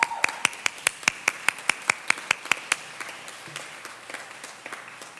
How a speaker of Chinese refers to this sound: 好，请你起立，让我们给你拍拍手。